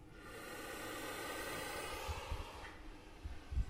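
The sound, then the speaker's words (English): A puff adder in an opened cage makes loud, breathy puffing, like heavy breathing, sustained with a harsh hiss and a few low thumps near the end; the snake bites the microphone. “so that we can hear the distinctive puff of a puff adder”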